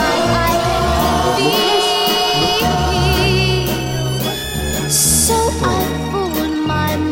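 A sped-up sample of psychedelic soul music by an obscure group, used by an indie rap artist from Paris 18e, plays loudly and continuously, with layered sustained harmonies, a steady rhythmic pulse and rich orchestral-sounding textures, and no one talking over it.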